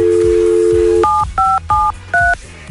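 A steady telephone dial tone hums for about a second, then four crisp keypad dialing beeps follow in quick succession, each a short two-note tone, clear and close with no talking.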